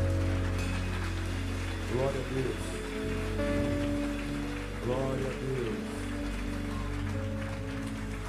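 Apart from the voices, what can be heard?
audience applause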